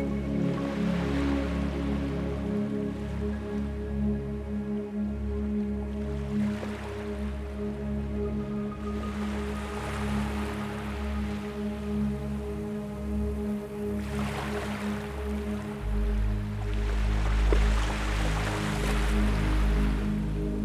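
Ocean waves rush in and wash back in slow swells every few seconds, steady and moderately loud, over a continuous low humming drone with no voices.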